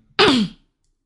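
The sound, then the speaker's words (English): A dog gives a single short, breathy snore, a raspy exhale with a low droning tone that slides downward before stopping. It is fairly loud, with silence around it and no talking. “I think our dog was snoring.”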